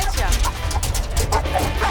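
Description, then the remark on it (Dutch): Several shelter dogs, mainly two females, bark and yip at one another in a continuous, overlapping din at a prison where each inmate has a dog, loud, with a voice faintly mixed into the commotion. “Oké, neem hem maar gelijk mee, want ze worden helemaal gek van elkaar.”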